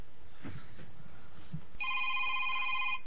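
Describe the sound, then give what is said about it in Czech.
After a quiet, murmury start, a telephone begins ringing with an incoming call to a radio call-in broadcast: a steady, bright electronic trill that holds at moderate loudness through the final second or so, with no one speaking over it. “Tak, Nevadí. máme, máme jiný telefon”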